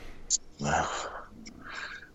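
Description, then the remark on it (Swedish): Heavy panting from a person taking a bag out of a car: a sharp intake of breath followed by a long, loud breathy exhale and another gusty breath, straining with exertion. “Ursäkta om jag flåsar som en jävla blottare nu va? men jag bara ska ta ur väskan i bilen här.”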